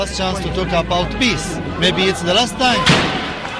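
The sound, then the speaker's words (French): Amid a crowd of overlapping shouting and chanting protest voices, a single sharp, loud bang bursts out near the end: a stun grenade used by the Israeli army to disperse a march at the gates of the old city of Hebron. “Mais l'armée israélienne postée aux portes de la vieille ville d'Hébron disperse vite le cortège à coups de bombes assourdissantes, de gaz lacrymogènes et de balles en caoutchouc.”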